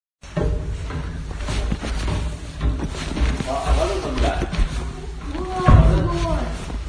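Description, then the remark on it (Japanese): Outdoor ambience at Hi no Misaki (日の岬), a windy seaside cape: a steady, heavy low wind rumble runs throughout, with people talking over it in short bursts, one louder gust near the end. “でちょっと日の岬でも少し録音しましたので、その様子を聞いてみてください。”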